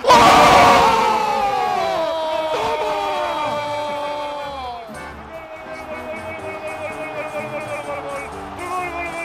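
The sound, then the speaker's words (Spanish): A huge stadium crowd erupts in a roaring cheer at a goal, loudest at the start with shouts and whoops, then settling into a sustained, rumbling roar that stays strong throughout. “baja un poco el fader porque es que esta gente está muy loca, ¿eh?”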